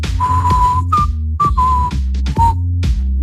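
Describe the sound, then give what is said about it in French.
A person whistles a short, halting melody, an attempt at the theme of the film Once Upon a Time in the West (Il était une fois dans l'Ouest): a long held note, then several shorter notes with brief pauses between them, over a steady low background rumble, with no talking. “Et puis sur M6, J'essaie de siffler, mais je me rappelle plus.”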